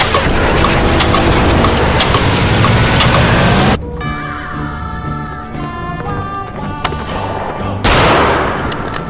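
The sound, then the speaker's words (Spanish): Heavy bursts of gunfire crackle amid a dense, roaring wash of noise, easing midway into quieter stretches with scattered shots over a steady tonal hum before the loud barrage returns. “Hay muchos disparos.”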